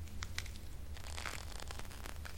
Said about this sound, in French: Ah J'entends un son très ténu. On dirait le bruit d'une bestiole qui marche à toute vitesse sur quelque chose de mou. Oh non Pas elle Tu as choisi une bestiole minuscule mais redoutable, la punaise de lit.